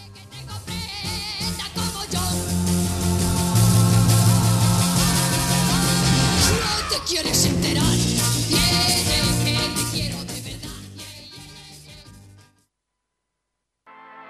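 A 1960s yé-yé pop song plays loud and full, with a bright band and steady beat, for about twelve seconds before cutting off into silence.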